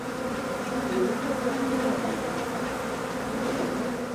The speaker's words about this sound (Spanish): El próximo paso era abrir la pared, a la fuerza. Una vez que abrieron el hueco, miles de abejas llenaron el pequeño espacio del cuarto.